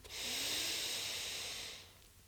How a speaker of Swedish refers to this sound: Och med det så kan du ta ännu ett djupt, långt andetag. Du andas in.